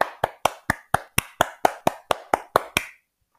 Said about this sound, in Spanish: no ha podido encontrar en Anchor la aplicación un sonidito de aplausos, así que me voy a aplaudir a mí misma.